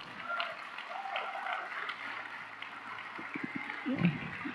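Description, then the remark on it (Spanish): An audience applauding the Lord during a sermon, a dense, steady crackle of many hands clapping at a moderate, even loudness for several seconds, with a few faint low thumps near the end. “Aplauda pues al Señor si lo va a hacer.”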